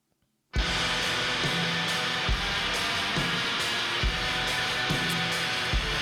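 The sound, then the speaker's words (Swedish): Black metal by a Danish band starts abruptly after a brief silence: a dense, harsh wall of distorted guitar noise with heavy drum hits thumping through it at a steady pace, loud throughout with no vocals. “Eh, ja, jag gissar att det blir eh, norsk eh, black metal eh, i den mer gedigna skolan.”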